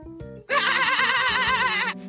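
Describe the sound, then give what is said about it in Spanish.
A shout that comes out as a loud, wavering sheep's bleat, held for about a second and a half, after a brief low murmur of sound. “Pero por, pero ¿por qué me, transformó eh, el grito en un ovejo?”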